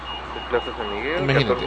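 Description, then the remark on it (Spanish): A parked car's alarm wails with a wavering, sweeping tone that rises and falls over background noise, steady for a couple of seconds. “que tienen que poner el carro con el arma ahí?”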